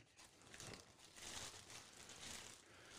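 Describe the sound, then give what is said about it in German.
A Beetle car being crushed into a cube: a steady, dense grinding and crunching of metal that swells and fades over three seconds, fairly soft, with no voices. “Jetzt wird der Käfer kaputt gemacht.”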